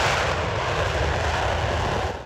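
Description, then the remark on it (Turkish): A military fighter jet, a warplane on an operation against targets in northern Iraq, roars loudly and steadily overhead, a dense, rushing engine noise that fills the whole moment before cutting off abruptly at the end. No voices are heard. “Savaş uçakları Irak'ın kuzeyinde Metina, Gara, Avaşin, Hakurk ve Kandil'de belirlenen hedeflere operasyon düzenledi.”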